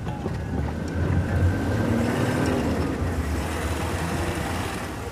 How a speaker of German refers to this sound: Der Jeep fällt in ein tiefes Schlagloch. Zwei Räder hängen in der Luft.